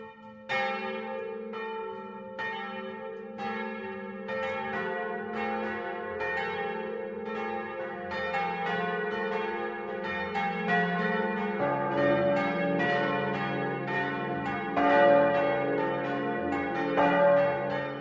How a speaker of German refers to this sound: Das Mittagsläuten kommt heute aus Regensburg-Rheinhausen.